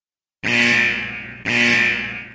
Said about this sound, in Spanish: Alarma de despresurización. Alarma de despresurización.